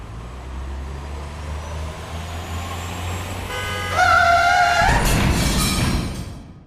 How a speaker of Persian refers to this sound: یه ویدیوی شبیه سازی پیچیدن خودرو رو جلوی یه کامیون به مردم نشون دادن پس چی بود یه دونه کامیون بود که داشت تو مسیرش حرکت میکرد یه خودروی یهو میپیچید جلوش